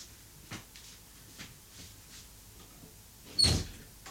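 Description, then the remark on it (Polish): A door is opened and closed: a few soft clicks and faint knocks, then a louder thump with a brief rattle near the end as it swings and shuts. “otworzę i zamknę drzwi.”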